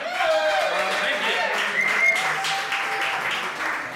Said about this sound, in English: Give him a hand.